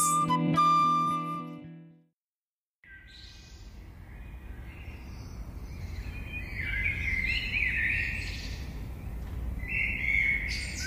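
A short tonal musical note fades out, then after a brief silence, a steady outdoor ambience rises with several birds chirping and tweeting in overlapping, irregular calls.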